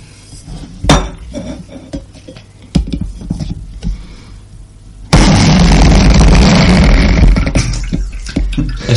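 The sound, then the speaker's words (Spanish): A few light clinks and knocks of kitchen gear, then an Aeropress is pressed to brew coffee after about a minute and a half, giving off a loud, steady rushing hiss with a rough, sputtering edge that lasts about four seconds; the Aeropress presses at about 8 bars. “Es que cuesta, es que la, la Aeropress hace, hace muchísima presión para, para infusionar el café normalmente.”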